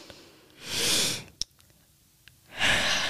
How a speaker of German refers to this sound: Und den ersten Atemzug zu machen, um, um zu atmen. Mhm. So. Man atmet also tief ein,